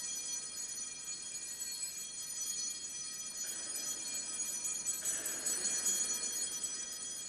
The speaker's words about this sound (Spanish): Oímos las campanillas de San Pedro que nos indican la bendición.